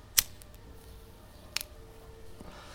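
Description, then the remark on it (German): A lighter is flicked twice to light a cigarette, two sharp metallic clicks about a second and a half apart, with a faint hiss lingering afterward. “Während des Podcasts eine Ziege anzünden.”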